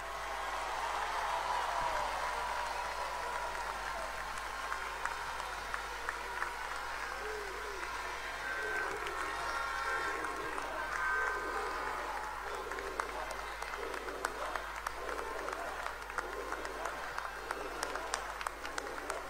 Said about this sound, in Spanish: Todos aplaudamos al ciudadano frentista que nos vino a acompañar.